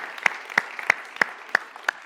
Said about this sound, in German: Dass Gott die Hände der Ärzte führt und leitet und lasst uns unserem Arzt, unseren Ärzten mal einen Applaus geben.